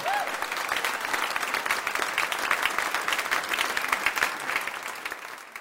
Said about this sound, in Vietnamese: Dành một tràng pháo tay để chào đón anh Dũng.